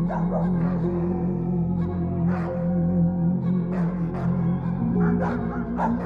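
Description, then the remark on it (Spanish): Several neighborhood dogs bark uncontrollably in scattered, repeated bursts while others howl in long drawn-out tones held steady underneath throughout the short stretch, after a wailing lament was heard. “En el momento que ese lamento se escuchó, los perros de la colonia comenzaron a ladrar de forma descontrolada y otros estaban aullando.”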